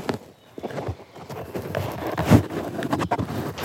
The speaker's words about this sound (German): Windschutz drüber. Das ist ein angenehmes Geräusch.